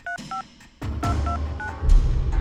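Chevo Guerrero dials a phone number: a quick series of about six short, beeping touch-tone pairs, irregularly spaced. After the first two beeps, a steady low rumble of background noise comes in.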